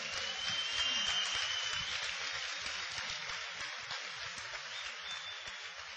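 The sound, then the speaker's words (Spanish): Sustained audience applause for Iván and Mili Morales, a dense crackle of many hands clapping at once, fairly loud and steady for the whole stretch with no voices over it. “Cuando mi esposo y yo empezamos esto, Iván y Mili Morales, para quien pide un aplauso, nos permitieron que entramos a su vida.”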